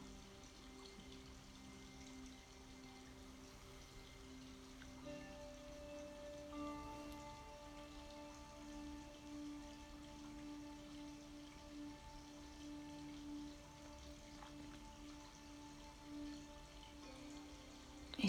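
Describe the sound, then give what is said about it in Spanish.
Water flows steadily and continuously, a soft, even rush with no breaks, layered under faint sustained tones like a gentle ambient drone. No one speaks. “continúas escuchando ese sonido del agua que fluye como tú, que fluye igual que tu energía por todo tu cuerpo.”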